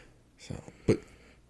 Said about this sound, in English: People that have been hearing me blow my nose, by the way, because we're we've touched about everything we're going to touch in this episode. I do apologize for my nasally nose and my blowing my nose.